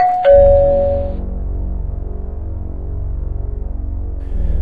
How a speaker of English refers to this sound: I was about to fall asleep when I heard the doorbell.